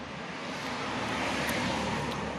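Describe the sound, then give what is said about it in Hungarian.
A steady, fairly loud roar of cars going by on a main road, a continuous rushing hiss with low rumble and no voices. “tíz évben jön négy autó a főúton, és az is most megy mind.”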